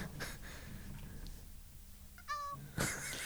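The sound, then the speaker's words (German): A brief ICQ messenger notification rings out once from an iPad Pro's speakers, a short tonal, meow-like electronic chirp with bright harmonics, played moderately loud over a soft room hiss and followed by a noisy rustle. “Also ICQ hat sich echt weiterentwickelt”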